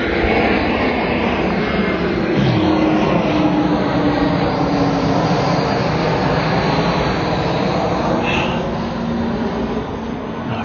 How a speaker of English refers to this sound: plane is really taking its sweet time.